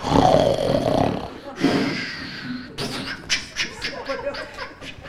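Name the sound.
voice imitating snoring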